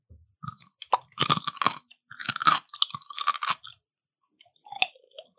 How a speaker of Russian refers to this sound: Огурец. Это какой-то овощ хрустящий. Ну ты мне подсказку давай. Да, да, огурец, все правильно. Огурец.